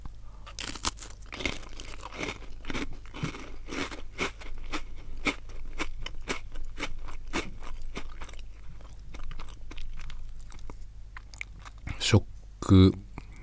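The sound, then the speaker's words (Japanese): Crunchy biscuit snack being eaten, with a steady run of sharp, crackly bites and chewing crunches repeating for several seconds, ending in a brief louder burst of noise. “完全にこのお菓子を食べてるけどもう寝るんだよね”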